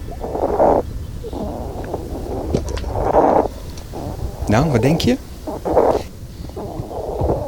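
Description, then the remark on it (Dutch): A hedgehog snuffles and huffs in a string of breathy, noisy bursts with a brief squeaky warble in the middle, while a person briefly asks a question. “Dit is de egel van Gree.”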